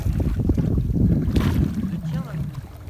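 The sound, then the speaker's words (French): Steady wind gusts roar across open water, buffeting the microphone with a heavy low rumble throughout, while the motion of a boat whose engine will not restart, drifting with the wind, and a faint voice come through briefly underneath. “Mais là, là, si vous nous laissez, on va, on va directement avec le vent.”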